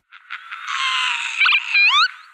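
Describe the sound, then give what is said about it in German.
A northern lapwing calls: a few short buzzy notes, then a wheezy, drawn-out cry ending in quick upward-slurred whistles, loud and clear with no other sounds. “Da hat man das ah. Kiewitz.”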